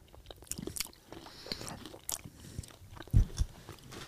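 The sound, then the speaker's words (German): Crunchy honey-coated nuts being bitten and chewed, with a series of short crackling crunches and a louder, heavier bite near the end. No one speaks. “Nur wenn man dann einmal diesen ersten Biss gemacht hat, dann merkt man, oh, so fest sind die gar nicht.”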